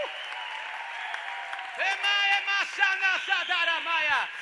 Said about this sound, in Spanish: Hay alguien que tiene que aplaudir al Señor por dos segundos. ¡Vamos!